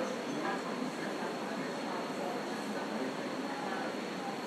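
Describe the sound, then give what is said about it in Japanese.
A steady wash of indistinct murmur of foreigners talking in a restaurant, with faint clinks and clatter of dishes scattered through it at an even, moderate level, used as a sound effect fading in at the end of a track. “こう外国人がレストランで 話してるようなガチャガチャガチャガチャ食器の音をね言わせてその音を最後にちょっとこの辺からフェードインさせてちょっとずつ入ってきますで上がってきてこのお尻のところで一番マックスになるみたいな感じ”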